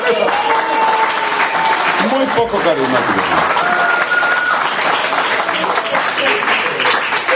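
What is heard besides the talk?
audience applause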